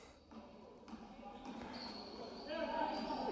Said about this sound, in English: Nico takes a few dribbles. He's going to throw.